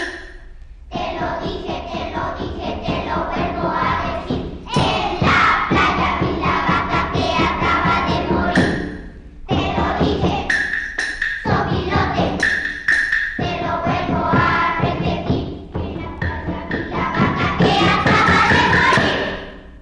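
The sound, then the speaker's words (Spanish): A group of children plays huehuetl drums, thumping along with lively voices, loud, the performance breaking off briefly a few times before carrying on. “escuchemos a los niños tocando huehuetl en la copla del sopilote”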